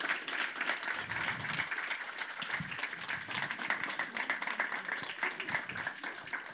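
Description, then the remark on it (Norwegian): Sustained audience applause, a dense crackle of many hands clapping steadily throughout at an even, fairly loud level, with no clear speech over it, as a debate audience welcomes the panel participants. “Applaus! Applaus!”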